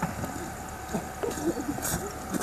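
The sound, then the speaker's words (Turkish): A car engine strains and revs in a steady, rough drone as people try to get the car out of deep snow during heavy March snowfall in Turkey, with outdoor noise around it and faint voices in the background. “Arabayı çıkarmaya çalışıyoruz.”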